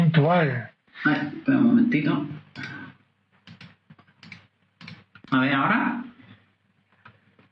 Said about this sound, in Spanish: Se te oye, se te teclear y esas cosas, pero bueno.